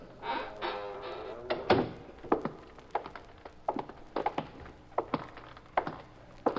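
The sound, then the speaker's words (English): The side door of a warehouse thuds shut with a single heavy knock, then a steady run of footsteps follows, walking at an even pace across a hard floor toward the far end. “All right, shut the door and walk down to the far end.”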